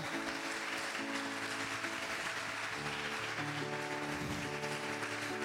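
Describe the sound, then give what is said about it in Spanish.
A church audience applauds the Lord steadily, a dense, continuous clatter of many hands that neither builds nor fades, with sustained keyboard chords holding underneath. “¿Cuánto aplaude el Señor?”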